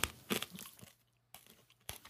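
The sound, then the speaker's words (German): Crisp crunching of someone chewing a carrot: a cluster of crackly bites at the start, a quiet pause, then two more sharp crunches. Fairly soft overall, with no talking. “Bist du erst eine Möhre oder was machst du da?”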